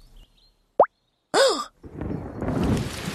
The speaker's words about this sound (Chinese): 耶！下雨了！